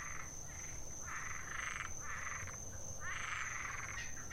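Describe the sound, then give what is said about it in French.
A chorus of frogs croaks at night in repeated bursts, several overlapping calls pulsing steadily over a constant high insect-like whine and low background rumble, with no one talking. “Sauf que j'ai pas pu dormir de la nuit puisque j'étais entouré en fait de grenouilles qui ont quaqué toute la nuit.”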